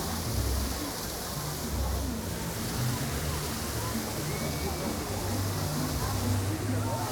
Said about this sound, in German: Hier ist wieder ein Wasserfall.